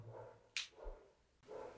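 A dog barks a couple of times in sharp, separate bursts with a pause between them, fairly quiet, with no one talking.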